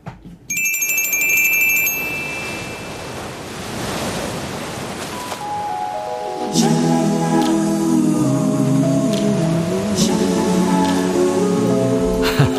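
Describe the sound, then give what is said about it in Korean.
An electronic alarm tone, an alarm left set by a KBS radio host, starts with quick, high-pitched beeps, swells into a loud whooshing wash like surf, then settles into steady, layered melodic tones. No one speaks. “이게 무슨 소리냐면요. 인디가 맞춰놓고 간 알람 소리예요.”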